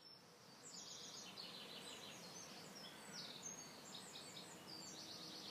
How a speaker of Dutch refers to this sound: Dit nam ik met Pasen op in de tuin van mijn vader en moeder. Ik had mazzel, want er kwam net een grutto voorbij met een prachtig Doppler-effect. Ik stond bij het opnemen achter in de tuin waar je over de weilanden uitkijkt.